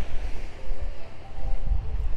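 Blustery seaside wind rumbles against the microphone while low waves wash in the background, a steady, rough roar with gusts swelling and easing, no voices present.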